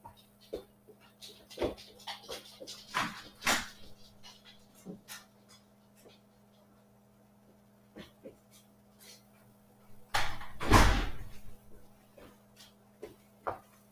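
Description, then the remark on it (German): Footsteps and small clicks and shuffles lead up to a door opening to let a dog out and then closing with a loud thud near the end, while the dog pants and whimpers softly. “So, musst du kurz meinen Hund raus die Tür lassen.”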